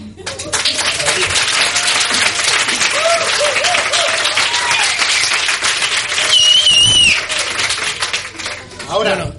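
Loud, sustained applause from a crowd of about 90 to 100 people inside a bar, dense clapping with scattered cheers and whistles rising over it, continuing steadily for several seconds before tapering off.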